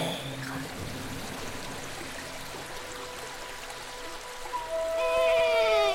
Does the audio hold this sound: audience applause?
no